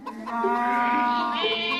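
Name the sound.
chickens clucking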